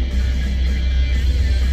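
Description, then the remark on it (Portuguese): A steady low rumble of road noise from inside a moving car as the driver takes side roads to avoid a traffic queue, constant and fairly loud with no distinct events over it. “40 minutos de, de, de carro e de, de, falação, cara.”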